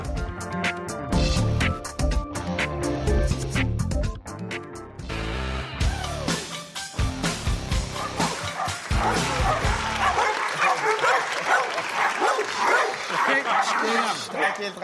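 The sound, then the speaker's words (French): A dog, Jack, a shelter dog, barks and yips repeatedly, breaking into high whimpering cries between the barks, with indistinct voices and busy background noise mixed in. “Et Jack, c'est un chien qui vient d'un refuge.”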